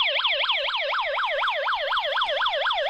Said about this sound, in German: Das heißt, ich habe hier jetzt den Bewegungsmelder aktiviert. Und ihr hört, was passiert. Ich habe das Gerät eben umgedreht und bekomme jetzt den Alarm.